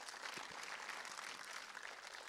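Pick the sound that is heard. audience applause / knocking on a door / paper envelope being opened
audience applause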